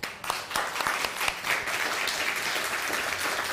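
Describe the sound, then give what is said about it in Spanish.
A crowd breaks into steady applause, many hands clapping at once in a dense, crackling wash that stays fairly even for several seconds, with a few sharper individual claps standing out. “Un fuerte aplauso.”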